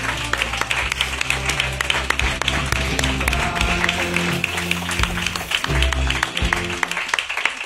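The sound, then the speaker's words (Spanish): An audience claps steadily and loudly for the whole stretch, a dense crackle of many hands that never lets up, with low sustained tones humming underneath, as the audience of the El Hombre Luna show applauds to close an edition of the programme. “Y lo que vamos a hacer, como siempre, lo que somos elegantes y hacemos es aplaudir a nuestro público.”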